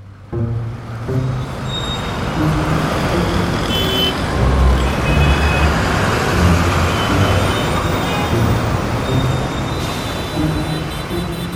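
Dense city traffic on the streets of Rio de Janeiro rumbles steadily throughout, a thick wash of engines from cars, buses and trucks, with low idling drones and occasional faint murmurs of voices in the busy street.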